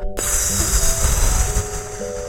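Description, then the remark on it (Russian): A person doing a calming breathing exercise with eyes closed takes a deep breath in and pushes it out noisily. The airy rush is fairly loud, with soft sustained musical tones underneath. “Прикрой глаза – Глубоко вдыхай и шумно выдыхай.”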